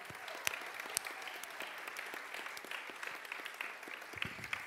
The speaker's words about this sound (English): Um, again, let's give the kids a round of applause again.